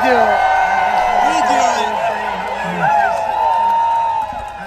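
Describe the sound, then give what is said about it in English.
A large crowd at a Donald Trump rally cheering and shouting, with many overlapping voices and whoops forming a steady, loud roar that swells briefly near the middle before holding level. “You know, they're just cheering, having fun.”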